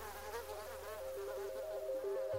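A mosquito's thin, whining buzz hovers close by, holding steady for a couple of seconds while its pitch wavers slightly up and down. No one speaks.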